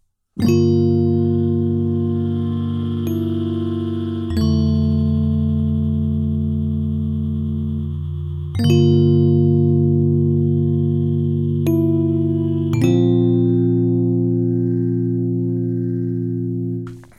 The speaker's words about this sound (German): Und das kann ich jetzt natürlich auch kombinieren und sagen, ich baller jetzt beides, Scatter und Drift auf 100 Prozent. Also manchmal starten die Töne irgendwo anders als in dem Feld und dann driften sie zusätzlich auch noch weg.